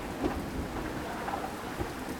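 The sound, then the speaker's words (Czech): Steady, dense rainfall hisses evenly throughout, with low thunder rumbling beneath it. No voices, just the continuous wash of a rainstorm. “Prší.”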